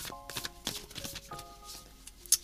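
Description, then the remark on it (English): Cards being shuffled by hand, a quick run of soft papery riffles and flicks, fairly quiet, with a faint steady tonal hum in the background and no one speaking. “I've already pre-shuffled uh, the major way that I do it when it's on the desk, so I'm just going to shuffle by hand now”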